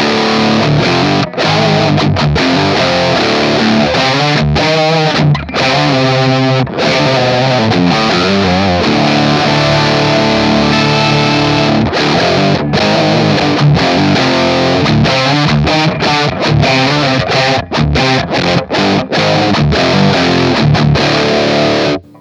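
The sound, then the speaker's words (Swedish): Heavily distorted electric guitar through a high-gain amp channel based on a JSM 800 with more gain, playing loud, saturated chords and riffs with a thick, crunchy tone and brief gaps between phrases. No voices. “baserad på en, på en JSM eh, 800 som sagt med, med lite mer gain.”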